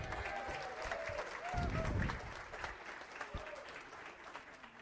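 An audience breaks into sustained applause, dense clapping swelling briefly in the middle before settling into steady ongoing clapping with some faint voices underneath. The applause is for a man back on stage for the first time in four months.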